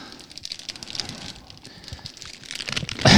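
A crinkly plastic bag of Indian chips rustles and crackles unevenly, building in intensity before a sharp, loud tearing burst at the end as it is ripped open with the teeth.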